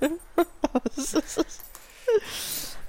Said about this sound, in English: You're doing a real good job keeping the dog under control with that toy. Not distracting at all.